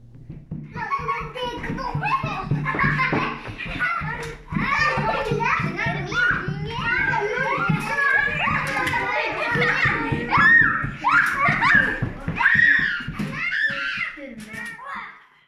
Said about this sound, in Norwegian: Han stirret nedover gata og hørte latter og skrål fra barn som lekte.